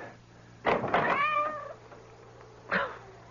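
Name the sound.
cat meowing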